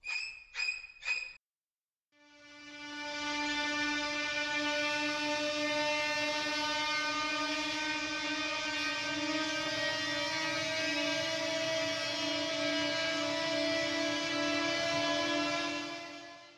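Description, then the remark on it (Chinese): Horror film violin music: three sharp, shrieking string stabs, a brief pause, then one long, piercing high chord held loud and steady until the end, with no voices. “那不管在 Cycle 的淋浴的那个场景，或者是小丑前面最刚开始开场的那个音乐，都是用小提琴哦。”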